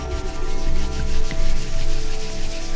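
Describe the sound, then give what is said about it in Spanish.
Palms rubbing briskly together, a steady dry swishing friction that swells and eases in a few rhythmic waves, heard alone without any talking. “Frota las palmas de las manos.”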